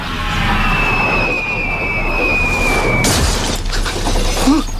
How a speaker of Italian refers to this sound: Quando incominciano ad accadere strani avvenimenti come la caduta dal cielo di un faro di proiezione dovuto al fatto che con il passare del tempo il set si sta deteriorando, Truman si insospettisce sempre di più.